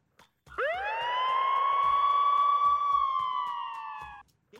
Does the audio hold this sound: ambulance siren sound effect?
yes